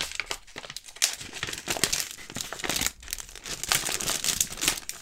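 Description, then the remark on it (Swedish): Continuous crinkling as the wrapping, ordinary paper and crinkly wrapping paper, is taken off a piece of candy, with crisp papery rustles and crackles coming in uneven bursts for several seconds, no voices. “Det här är när jag, när jag tar loss emballaget då.”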